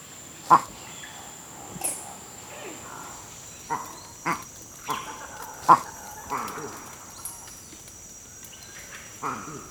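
A series of short, sharp calls from a male Campbell's monkey, the 'waku' alarm call given for an eagle attack, repeated irregularly about every second or so, standing out over a steady forest background of insects and birds.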